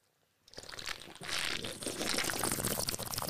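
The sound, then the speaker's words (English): Old English malt liquor pours and spills, a steady fizzy, crackling gush that begins after a brief silence and runs for about three seconds with no one speaking. “I'm spilling the old English.”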